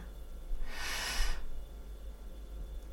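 deep inhalation breath

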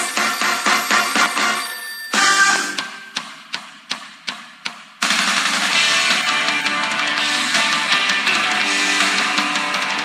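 telephone ringtone

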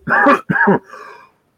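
cough

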